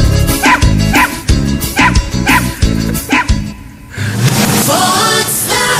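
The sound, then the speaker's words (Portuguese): A newly released viral song built from dog barks: loud, pitched woofs repeat in a steady rhythm over a thumping beat, then the arrangement shifts into a busier musical passage with yips woven in. “É a música do cão.”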